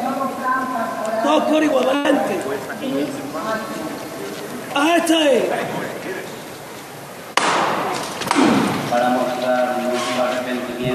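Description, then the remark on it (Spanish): Creaking and rattling of silver fittings, falling drapes and valances as a heavy processional float (paso) is lifted inside the cathedral, marked by a sharp knock and a burst of metallic clatter amid steady voices and tones. “Qué bonito como suenan las levantadas en el interior de, la catedral porque podemos escuchar todo el crujir de, la plata y de las caídas y de las bambalinas.”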